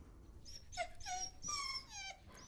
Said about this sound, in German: Und dann sehen sie es. Den umherspringenden kleinen, süßen, winselnden Fellhaufen in einem vielleicht weihnachtlich dekorierten Hundekorb.